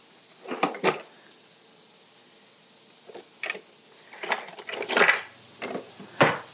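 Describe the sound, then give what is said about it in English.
Utensils clatter and scrape as someone rummages through a jammed, quarter-size utensil drawer in a mini kitchen, with irregular bursts of metallic clinks and knocks separated by brief pauses, growing busier toward the end. “I'm glad your utensil drawer looks like mine. Jammed.”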